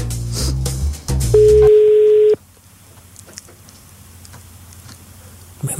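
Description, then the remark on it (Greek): A single loud, steady ringback tone from an outgoing phone call sounds for about a second, following some rough handling noise, then fades into a quiet line hiss. “χτυπάει πολύ ωραία για να δούμε.”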